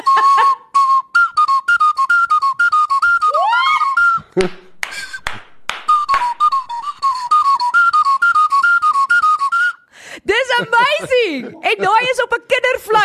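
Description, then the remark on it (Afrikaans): A toy whistle plays a wandering string of short, uneven notes with no clear tune, fairly loud, broken by clicks and taps, before someone bursts into laughter. “Hierdie is nie uh eh, hy's nie gewone key nie. Hy't sommer net random note.”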